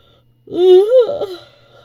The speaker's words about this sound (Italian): Sbadiglio.